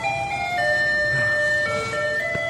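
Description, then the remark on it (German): A street jingle plays Für Elise in thin, electronic tones, sustained notes stepping along steadily, heard outdoors over a low rumble of traffic. No one speaks. “Ähm, das ist doch äh, für Elise.”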